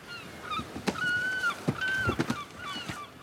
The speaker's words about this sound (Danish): Åh oh, nej! Jeg hader måger. De flyver altid rundt og klatter over det hele. Og det er altså ikke særlig sjovt at få en fugleklat i nakken, skulle jeg hilse at sige.